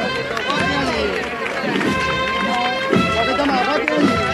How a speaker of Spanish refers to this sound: Ya la tenemos arriba ya, tenemos arriba. Y el público que irrumpe en una fuerte ovación.